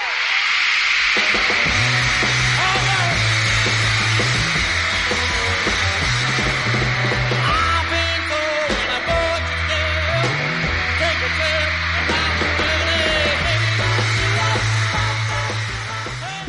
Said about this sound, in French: Hurlement, évanouissement, Mouvements de foule et salle de presse prise d'assaut par le public et les journalistes.